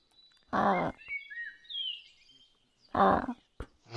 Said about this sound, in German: Guck, da oben im Baum, da hat sich eben ein Papagei verfangen.